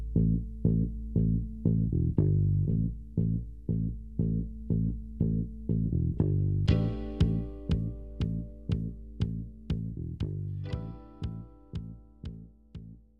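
A recorded pop song plays loud, driven by a steady pulsing beat and thick chords; about halfway through, brighter, sharper percussion kicks in. No one talks over it.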